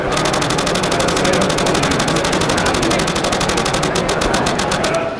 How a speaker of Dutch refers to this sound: En dan de Z6. Ook deze camera heeft de Mode High Plus. Daar gaan we ook naar luisteren.